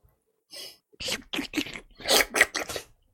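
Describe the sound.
A series of wet mouth slurping noises, several short bursts in quick, uneven succession, fairly loud with brief pauses between them and no talking.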